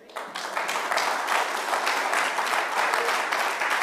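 An audience claps their hands in steady, dense applause that swells quickly and holds at a fairly loud level throughout, with many overlapping claps and no talking.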